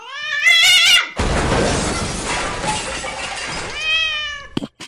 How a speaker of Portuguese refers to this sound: Cara, só um segundo aqui que meus gatos ficaram loucos. Aqui. Um segundo, peraí.